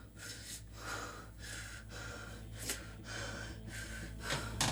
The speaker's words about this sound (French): Quand j'entends silence, c'est ce moment où je prends une grande bouffée d'oxygène.